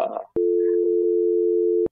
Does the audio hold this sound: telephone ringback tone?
yes